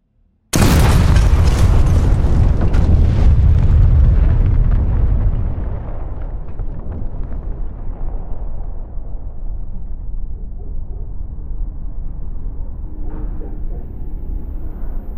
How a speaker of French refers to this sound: La, maison a explosé, on, voit rien. Il y a de la fumée.